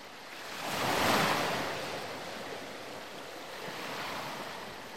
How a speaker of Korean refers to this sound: 간혹 큰 파도가 방파제를 때리면 물보라를 일으키며 바닷물이 넘어오기도 했어요.